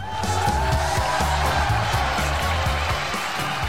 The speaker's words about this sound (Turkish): Çok özür diliyorum Mehmet Ali sana verdiğim alkışı geri alıyorum. Evet alkışı geri aldım. Şimdi Yusuf Öncü Türk'e bir alkış gönderiyorum.